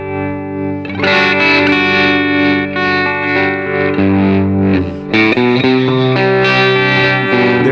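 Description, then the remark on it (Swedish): A spacey, effects-heavy synth tone plays loud, sustained chords that waver and sweep back and forth, a panning effect moving the sound between two scenes, shifting to a new chord partway through. No one speaks. “Men nu sätter jag på då eh, ett tremolo, eller liksom någonting som går mellan de här två scenerna.”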